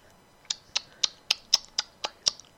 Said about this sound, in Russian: я цокаю, ребят.